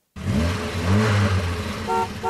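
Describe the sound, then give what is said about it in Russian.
A short jingle for a radio traffic report on Krasnoyarsk roads: a loud revving car engine with rising and falling tones, then two bright horn toots near the end, with no talking. “Сейчас прям под джингл запустимся”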